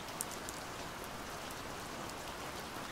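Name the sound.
rain falling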